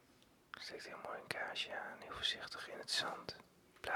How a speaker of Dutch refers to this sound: We zijn inmiddels in het klooster, zoals je hoort.